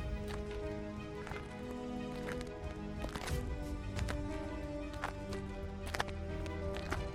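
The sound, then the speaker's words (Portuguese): Footsteps of people walking through a city in the small hours of the night, at an uneven pace, with sharp thuds landing about once or twice a second over a steady low hum of background noise. No one speaks. “A gente tava andando de madrugada, a gente só ouvia o som dos nossos passos.”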